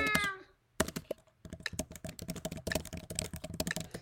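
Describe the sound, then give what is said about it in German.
Rapid, continuous clicking of a computer keyboard being typed on, steady and busy for several seconds, following a brief tonal sound and a moment of near silence. “glaube, das ist für euch sogar eigentlich ganz gut, weil die Tastatur ist nicht so laut.”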